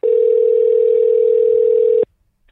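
A single telephone ringing tone from an outgoing call: a steady, clear mid-pitched beep lasting about two seconds, then cutting off into silence. No voices.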